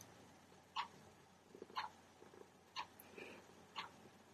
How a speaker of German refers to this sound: Ich glaube, der Kater möchte mitsprechen. Der Kater fühlt sich total wohl.